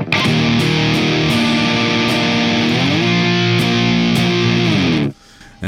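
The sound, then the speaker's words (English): A thick, saturated electric guitar through a Maleficent overdrive pedal with its frequency sweep turned all the way up, together with a Xenia pedal, playing loud overdriven chords for about five seconds, sustained and buzzing with grit, then cutting off abruptly into near silence with no one speaking. “let's double check the Xenia with the Maleficent because the Maleficent basically on its f- frequency sweep went all the way back up to dimed uh, five five o'clock, um, just because where that sits with the Xenia sounds absolutely incredible to me.”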